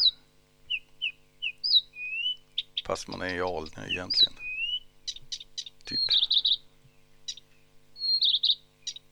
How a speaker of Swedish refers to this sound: Improviserar. Helt fantastiska xylofonläten mitt i alltihop. Att sitta och lyssna på den här busksångaren, det, då tror man att man är i regnskogen.